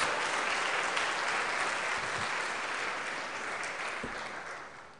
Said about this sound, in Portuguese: Quem pode aplaudir a Senhor, queridos? Glória a Deus.